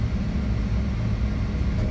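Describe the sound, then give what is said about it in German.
A small airplane's engine drones steadily in flight at 3,600 feet while flying back to the airport, a loud, continuous low hum with a constant pitch and level throughout, with no voices. “Wir fliegen zum Flughafen zurück. Wir befinden uns auf 3600 Fuß.”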